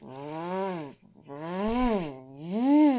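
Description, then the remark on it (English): A voice imitates a giant buzz saw popping out of an opened chest: a loud, droning whine that rises and falls in pitch over two or three sustained revving bursts, with a brief gap between them. “and a giant buzz saw pops oh, out.”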